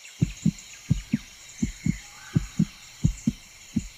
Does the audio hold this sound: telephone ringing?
no